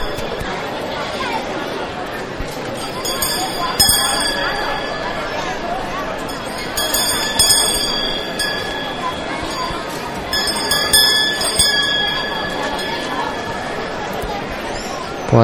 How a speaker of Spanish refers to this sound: esa campana del munidor que al igual que sonaba en la cofradía del silencio del pasado martes santo, anuncia la llegada de la cofradía de la soledad